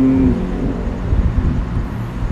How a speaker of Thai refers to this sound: เป็นซาวเสียงรถวิ่งเป็นอะไรเงี้ย